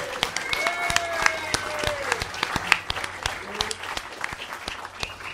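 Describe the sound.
A steady round of applause: quick, irregular claps from a small group continue for about five seconds at a fairly even loudness, with some voices mixed in underneath.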